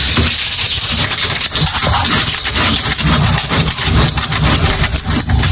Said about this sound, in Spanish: Bueno, este es el sonido del vídeo, yo abriendo la puerta de casa esta mañana.